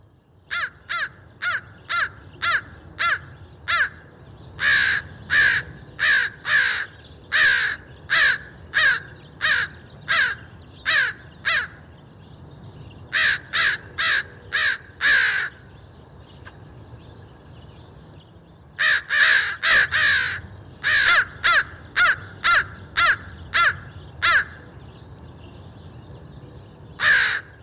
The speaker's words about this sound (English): In the case of the crows, I found some one morning in my front yard and made the recordings.